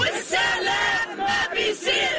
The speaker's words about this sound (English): They marched through the streets of Ramallah, shouting the deal between Israel and Hamas isn't enough. They want to see an end to the war on Gaza completely and the release of all Palestinian prisoners.